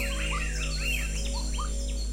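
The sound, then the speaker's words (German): Several exotic birds sing in quick, overlapping whistled phrases and chirps, steady, over a constant low background hum, in the rainforests of Costa Rica. “Vom sanften Plätschern eines irischen Baches zum melodischen Gesang exotischer Vögel in den Regenwäldern Costa Ricas.”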